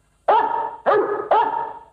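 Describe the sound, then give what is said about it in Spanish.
A large dog, a German shepherd, barks three times in quick succession at a person entering, each bark loud and deep, with a brief trailing tail before the next. “El pastor alemán empezó a ladrar.”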